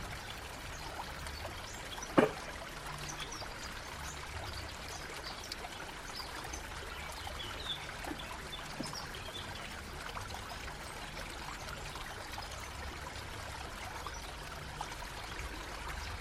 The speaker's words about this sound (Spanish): Con curiosidad, acércate al río y observa el agua que fluye por él mismo. ¿Qué tan cristalina es el agua que fluye? ¿Logras ver el fondo del río?